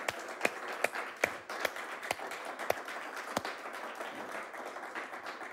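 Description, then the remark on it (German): An audience applauds steadily for several seconds, a dense wash of many hands clapping with a few sharper, louder claps standing out. No one speaks over it. “einen riesen Applaus geben für das, was sie sind, für das, was sie bewegen.”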